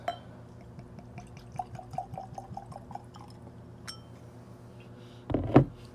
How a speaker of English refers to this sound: I'm going to pour a little into my glass.